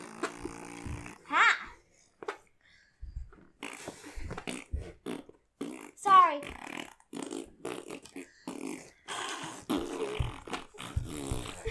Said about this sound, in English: This has been our fart sound segment brought to you by Bush's Baked Beans.